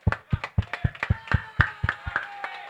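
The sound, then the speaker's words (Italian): Crisp hand clapping in a steady, even rhythm, about a dozen sharp claps by the show's hosts applauding their audience, with a faint sustained tone humming underneath and no one talking. “E poi c'è un applauso, quello più speciale, porca miseria, che è quello che facciamo a voi.”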